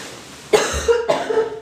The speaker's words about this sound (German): Hustpause. Hustpause, die zweite. Sorry, ich glaube, ich muss das echt rausschneiden, das ist zu doll.